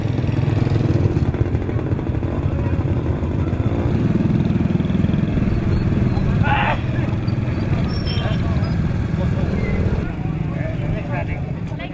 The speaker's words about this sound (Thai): มีเสียงไซเรน มีเสียงมอเตอร์ไซค์ที่บีบแตรขอทางชาวบ้านท่ามกลางความมืดนะคะ